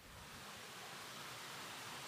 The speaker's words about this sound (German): das ist das Plätschern. Dann hört man wirklich die pure Natur. Es ist wunderschön.